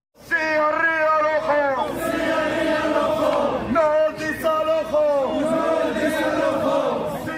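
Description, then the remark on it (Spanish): A crowd of about fifty greenhouse workers from Níjar, Almería, chants together at a demonstration in November 2022, voices rising and falling in loud repeated phrases with shouts and a constant babble underneath throughout. “Pues mira, lo que, lo que estamos escuchando es una manifestación que, se, tuvo lugar en noviembre de 2022, ¿no?”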